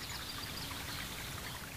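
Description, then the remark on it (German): Water trickles and splashes steadily into a stone basin, then makes its way on to a pond; a soft continuous burbling with no pauses, fairly quiet, with no voices present. “Das Wasser plätschert beständig in das Steinbecken und bahnt sich seinen Weg bis zum Teich.”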